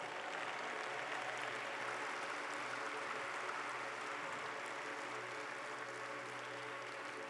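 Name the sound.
audience applause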